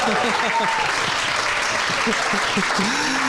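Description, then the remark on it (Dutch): Steady, dense audience applause in Café Kleef in Haarlem fills the whole stretch, a continuous crackle of many hands clapping at even loudness, with a voice talking over it. “ja, ja, ja, dat applaus?”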